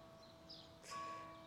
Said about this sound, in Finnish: Mä en tiedä kuuletteko te, mutta tuolla tota, Pyhän Henrikin kirkossa soi kirkon kellot.